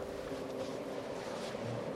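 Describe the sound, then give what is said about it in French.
Strong wind of a snowstorm roars steadily and unbroken at over 100 km/h outside a tent at a research station outpost, with a low moaning howl running through it, fairly loud. No one speaks. “Dehors, le vent souffle à plus de 100 km/h. Une tempête de neige qui fait rage depuis avant-hier.”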